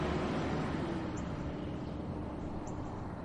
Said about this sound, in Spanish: El coche avanza.